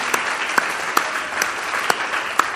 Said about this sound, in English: But can we go ahead and just give just a round of appreciation and applause to those working out in the foyer, how hard they work,